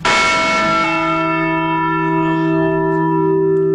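bell ringing

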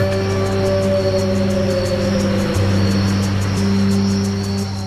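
helicopter rotor sound

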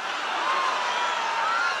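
rally crowd cheering

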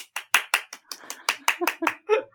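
applause

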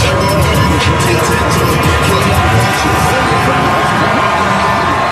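crowd noise

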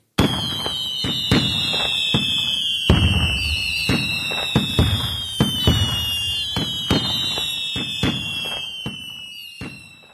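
fireworks exploding

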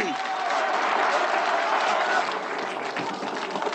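applause

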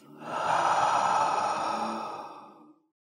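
deep breath in nose

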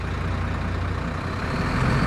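truck driving away

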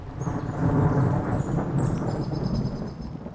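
thunder

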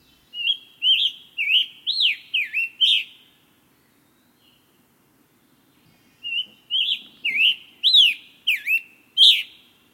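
scarlet tanager song

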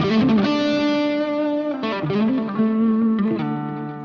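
electric guitar

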